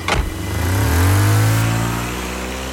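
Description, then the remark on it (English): A sedan's engine revs up loudly after a brief sharp knock, its rising hum holding steady as the car pulls away from the curb outside a church. No voices are heard. “Two Gestapo agents dressed with long black leather trench coats came in, snatched him, and dragged him to a waiting sedan that was idling at the curb outside of the church and took him to Gestapo headquarters in the first district.”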